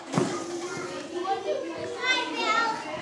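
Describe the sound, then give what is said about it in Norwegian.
Several young children chatter and call out over one another in a kindergarten, a lively, continuous babble of high voices. “Og for at det skal bli enklere å takle nynorsk på skolen, mener de at en bør starte allerede her. I barnehagen.”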